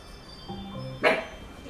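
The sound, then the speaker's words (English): A dog gives a short, rising whine and then a single sharp bark, moderately loud, against a quiet background. “It's, it's the deer. The deer. the deer dog.”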